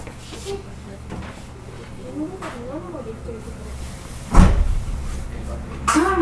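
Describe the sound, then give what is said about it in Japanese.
A train door that does not open automatically opens after the blue button beside it is pressed, with a sudden loud mechanical thump and rush partway through, over a steady low rumble of the carriage, with a faint voice talking earlier and another clunk near the end. “お降りの際はドア横のボタンを押してドアを開けてくださいドア横の青いボタンを押すとドアが開きます”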